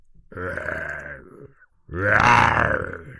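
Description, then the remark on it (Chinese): A lion roars twice, two loud, deep, throaty bursts of about a second each separated by a brief pause, the second one louder and rougher than the first, with no talking over them. “来，狮子，给我们叫两声吧。”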